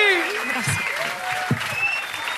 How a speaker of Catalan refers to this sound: Bon aplaudiment, clar que sí!